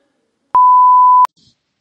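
A single loud, steady electronic beep from an answering machine, lasting under a second in an otherwise silent stretch, followed by a brief faint rustle.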